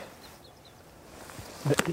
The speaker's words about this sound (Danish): Hvad er det for en fugl? Det er korsnæb, der flyver og synger.